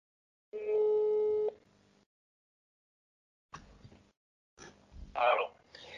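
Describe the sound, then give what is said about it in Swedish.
A steady electronic phone tone sounds once for about a second over a speakerphone, then fades, followed by bursts of muffled line noise and a faint voice coming through the call. “Då sätter jag på högtalaren helt enkelt.”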